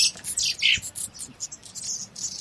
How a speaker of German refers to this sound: Also vor mir sind jetzt fünf Käfige und überall sitzen so kleine Vögel drin und die zwitschern ganz schön laut und ich glaube, die haben wirklich Hunger.